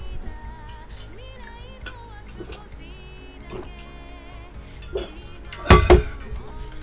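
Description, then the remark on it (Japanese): Glasses clink together in a toast, a sharp bright chime with a brief ringing tail near the end, standing out above a faint, steady humming background. “あ乾杯、乾杯。乾杯”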